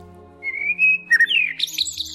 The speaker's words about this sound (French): son naturel peut nous affecter, comme le son d'un oiseau par exemple, car il y a toujours cet effet d'association dans notre cerveau. C'est quelque chose de rassurant. En effet, oui, le chant des oiseaux étant lié au fait qu'il n'y a pas de danger.